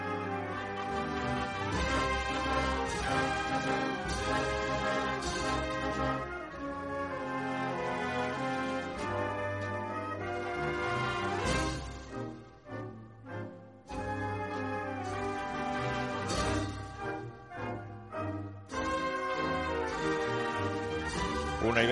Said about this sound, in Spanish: con esta maravillosa marcha Esperanza de Triana de Farfán, que también suena así de bien